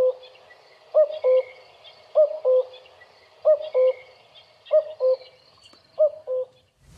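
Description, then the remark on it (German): A common cuckoo calls its classic, most commonly heard two-note 'cu-coo' song five times in steady succession, clear, with faint bird chatter in the background. “Und ich sag mal, der klassische Gesang, auch da ist ein bisschen Variation, den man am häufigsten hört, das ist der zwei Kuckuck.”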